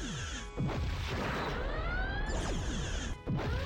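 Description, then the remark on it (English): Loud sci-fi weapon blasts from a decloaking ship slam into a starship, with heavy booming impacts near the start and end over a continuous rumble and sweeping, warbling electronic tones. “Captain, they're decloaking and firing.”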